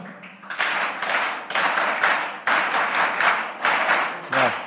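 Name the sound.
audience applause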